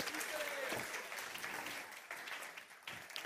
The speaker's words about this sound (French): Est-ce qu'on peut les encourager, s'il vous plaît Applaudissez-les parce que c'est un vrai défi là.